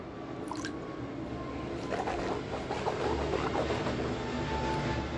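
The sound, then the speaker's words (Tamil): Someone drinks water, with soft wet swallowing and slurping noises over a steady background hiss, no one talking. “இருங்க ஃப்ளைட்டு போயிட்டு வந்து தண்ணி குச்சிக்கிறேன்”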